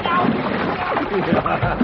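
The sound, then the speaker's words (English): Water splashes and sloshes steadily for a couple of seconds as it is poured over a man in a tub, with muffled voices mixed in under the wet, rushing noise. “Hey, so don't pour that water on me”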